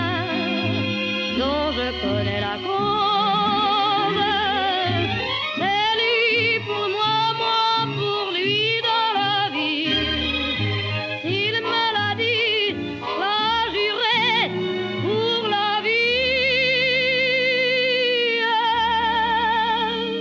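A French chanson plays steadily at full volume, a woman's voice singing a warm melody with wide vibrato over a lush orchestral accompaniment, continuous for the whole stretch.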